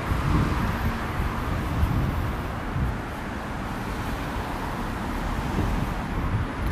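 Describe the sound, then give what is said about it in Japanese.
Steady roar of heavy street traffic with cars passing on a busy road, a dense low rumble that swells slightly now and then, heard outdoors with no one talking and a hint of wind on the microphone. “どうですかね、まあ、何しろ今が聞こえてないのでどういう風に撮られてるか分かんないんですけど車の音とかも結構聞こえたんじゃないでしょうか。”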